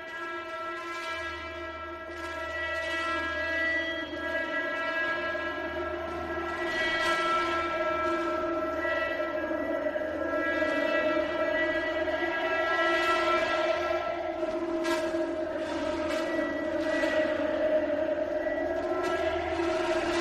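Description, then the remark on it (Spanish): A dark, droning piece of TV series soundtrack music: sustained, horn-like layered tones swell steadily over a low pulsing rumble, with faint metallic clicks, and no voices. “Vamos a escuchar ya esta pieza de la banda sonora y empezamos a hablar de Chernobyl con spoilers.”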